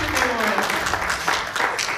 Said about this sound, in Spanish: Es la obra del Señor y quiero dar un aplauso a ustedes